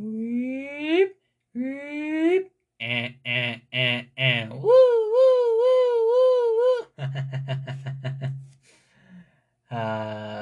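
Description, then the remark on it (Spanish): A single voice mimics a car alarm, cycling through rising whoops, a run of short choppy blasts, a long warbling wail, then rapid stuttering beeps. “Ah, pero como todo el mundo se sabe la, la alarma de los carros desde que va...”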